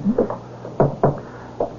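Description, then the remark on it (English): A man taps on a wooden closet door: a handful of light, hollow taps, spaced unevenly with short pauses between them, moderately loud, with no voices. “Uh, that's the closet door you're tapping on, sir.”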